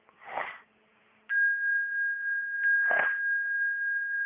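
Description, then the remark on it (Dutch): Two short sniffles from a runny nose, a few seconds apart; a steady high-pitched electronic tone starts between them and hums on underneath. “Nee, het is mijn loopneus.”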